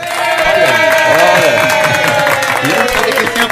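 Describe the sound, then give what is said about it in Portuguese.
A crowd applauds loudly and steadily throughout, dense clapping mixed with voices cheering and calling out, filling the whole moment. “Olha, Quem passa por aqui não sai sem aplauso, não.”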